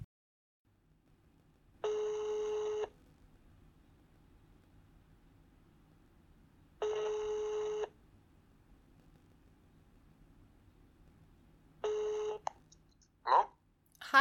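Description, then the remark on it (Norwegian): An outgoing telephone call to check how someone is doing at his job rings out on the line: three evenly spaced ring tones about five seconds apart over a faint hiss, then a few clicks as the call connects. “Så nå ringer jeg Erik og hører hvordan det går, og forbereder ham på møtet”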